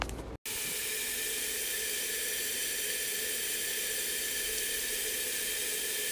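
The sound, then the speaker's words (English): Garlic sautéing in a pan gives a steady, loud sizzling hiss that holds without a break after a brief dropout at the start. No voices are heard. “Ah, the sweet sound of sauteing garlic.”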